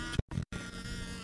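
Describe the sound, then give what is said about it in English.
A small-displacement model airplane engine buzzes with a steady, high-pitched whine, cutting out briefly twice near the start before droning on continuously at moderate loudness, as toy airplanes are flown at a muddy, rainy outdoor event. “So we're having a great time slopping around in the mud and flying toy airplanes of small displacement.”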